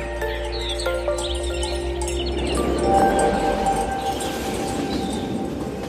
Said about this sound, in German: Mit dem Zug sausen wir durch das idyllische Alpenvorland